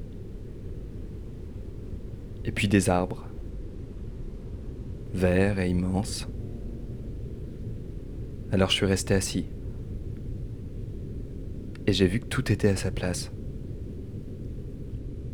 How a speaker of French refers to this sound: Puis je me suis assis sur un rocher. Là, au milieu des montagnes. Et il y avait une cascade au loin